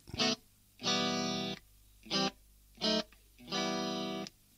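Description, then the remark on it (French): Loud, distorted electric guitar chords play a punchy punk riff: five bursts in a short-long-short-short-long pattern with brief gaps between them. No one speaks. “Alors pour l'éléphant, on a trouvé une chanson, c'est les ….”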